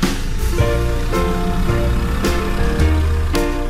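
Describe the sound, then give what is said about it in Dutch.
A boat motor runs steadily during a summer evening boat trip, a loud continuous drone with shifting tonal hum and a few brief knocks or splashes scattered throughout. No one speaks. “Ik zal niet te veel lawaai maken met de motor.”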